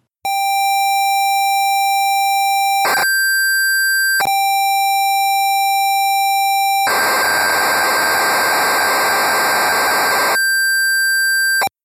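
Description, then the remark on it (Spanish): A retro computer tape loading noise: steady high pilot tones with short gaps, switching to a dense, harsh data screech before returning to a single clear tone. Loud, with no voices. “Ok, cargamos Retromanía 30.”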